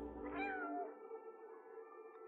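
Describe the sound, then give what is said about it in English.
A single drawn-out meow from the playable cat in a robot video game trailer rises and falls in pitch, clear, then trails into a softer sustained tonal hum for the rest of the moment. No one speaks. “But it's a good-looking cat.”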